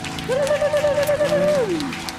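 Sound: audience applauding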